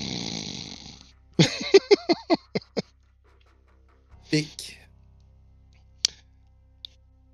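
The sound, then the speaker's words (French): A person asleep with his head down in a book snores: a raspy, breathy inhale, then a rapid series of sputtering, fading snorts, followed by a short nasal snort and a couple of faint clicks. “Et lorsque tu te retournes, il est carrément juste la tête première dans son livre avec la bave, tu l'entends ronfler.”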